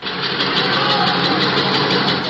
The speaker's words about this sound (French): 11h15 hier, un détenu filme de sa cellule la cour de la prison de Réau. On entend les pales d'un hélicoptère qui vient de se poser dans l'enceinte de l'établissement.